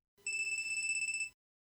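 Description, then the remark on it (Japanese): A phone ringtone rings in a single burst of about one second, a bright electronic trill with a rapid warbling pulse, sounding alone in silence with no voices. “着信音が静寂の中に鳴り響いている”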